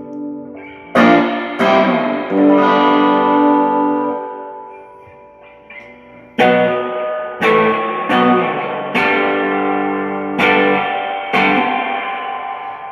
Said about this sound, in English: Oh, you got that like maxed? Yeah, I had mine maxed. So this is the amp maxed. Okay, just check out how cool this is. All right. And that's my reverb of my amp.